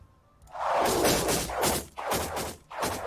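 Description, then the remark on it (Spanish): Arrows whoosh past in quick succession, three or four loud, airy swishes following one another after a brief quiet start, with no voices. “Es que me pasan volando las flechas.”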